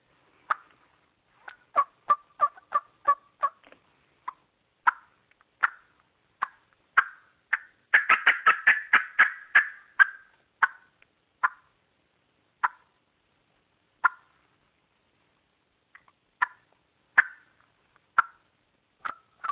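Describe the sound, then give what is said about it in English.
A turkey hen cackles while flying down out of the trees to the ground, in sharp, irregular notes that speed into a dense, excited burst midway, then trail off into scattered single clucks. The call is clear, with no talking. “they cackle a lot coming out of the trees because they're not real sure whether they're going to make it to the ground safely or not”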